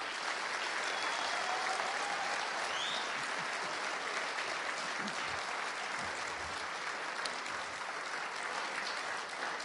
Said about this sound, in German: Mal ganz herzlich mit einem Bremer Applaus.